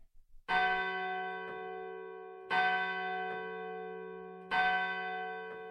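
A church bell tolls the hour with three heavy, evenly spaced strikes about two seconds apart, each ringing out and fading slowly into the next. No voices.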